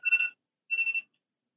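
A mobile phone alarm rings in two short electronic bursts separated by a brief pause, each a bright, steady warbling tone, with no voices present.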